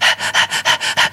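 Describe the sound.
Someone imitates heavy, rhythmic breathing, the breathing heard on a well-known song: about seven quick, loud, breathy huffs in a steady panting pattern, with no talking.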